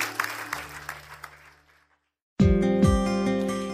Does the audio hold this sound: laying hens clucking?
no